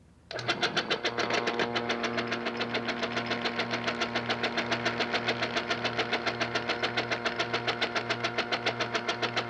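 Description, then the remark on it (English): A mechanical vacuum plaster mixer, with a vacuum hose fitted to the insert on its top, starts up with the clutch engaged and mixes plaster for 30 seconds. It runs steadily with a loud motor hum and a fast, regular knocking pulse throughout, and there is no talking. “We'll now turn the machine on, uh, engage the clutch, and mix for 30 seconds.”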